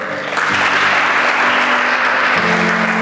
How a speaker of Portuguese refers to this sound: Dá um aplauso, fique de pé.